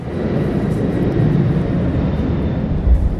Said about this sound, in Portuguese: ok, avião tá passando, entendeu?